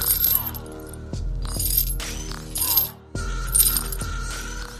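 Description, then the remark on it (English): Chains rattle and clink as a four-legged monster comes out, in bursts of metallic jangling, with sharp bright clatters repeating over a steady low rumbling drone, and a brief pause near the end before the rattling resumes. “the four legged monster came out. rattling chains.”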